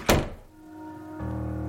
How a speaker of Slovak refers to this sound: Jaroslav pýta brata, čo sa stalo v izbe a prečo tak tresol dverami